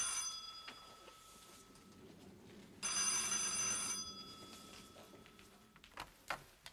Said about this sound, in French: Pardon, le téléphone.